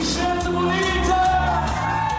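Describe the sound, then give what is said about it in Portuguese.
An audience of dozens of Portuguese people at a celebration party at the Scalabrini Center in London cheers loudly and steadily, a dense wash of shouts, yells and whoops that holds at full volume for a couple of seconds without a break. “o elogio foi bem recebido pela plateia.”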